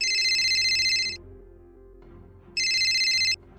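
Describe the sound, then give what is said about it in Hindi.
A phone ringtone sounds on Abhi's phone in two loud, bright electronic bursts separated by a short pause, with a low background hum and no voices. “तभी अभी के फोन पर घंटी बजी”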